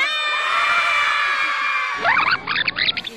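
A large crowd in a huge hall with a stage and curtains roars with sustained high-pitched cheering and shouting, then breaks into bursts of excited whoops and yells toward the end, loud throughout with no single voice standing out.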